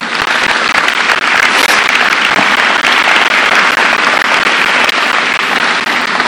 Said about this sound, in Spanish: Amén. Denle un aplauso al Señor.